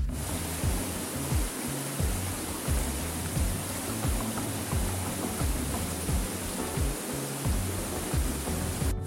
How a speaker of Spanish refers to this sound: Usted hará un recorrido de menos de 100 metros y encontrará una bella poza, una cascada más adelante.